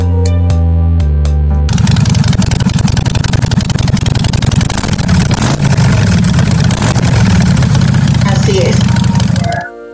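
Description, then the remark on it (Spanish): A Harley-Davidson motorcycle engine idles loudly, its exhaust giving a steady, loping low rumble for several seconds, preceded by a few brief tonal notes at the start. “se me viene a la mente el muy sonado caso de la Harley Davidson que tiene un sonido específico para sus motores y sus escapes.”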